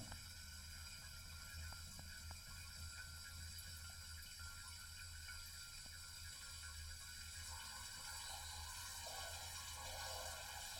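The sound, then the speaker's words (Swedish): A steady, continuous rush of water running through a faulty valve, with a faint hiss and low hum, unbroken throughout, the flow growing slightly stronger and noisier toward the end. No one speaks. “Håller den på hela tiden? Vet inte varför. Kan vara en ventil som är lite, som inte håller tätt va.”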